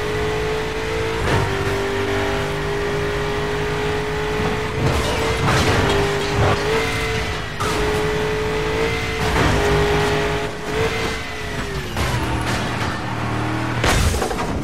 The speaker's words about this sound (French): ça, c'est le son de la tôle qui se froisse au ralenti. Donc ça, c'est une signature, hein, c'est Burnout, le dernier en date, Burnout Paradise.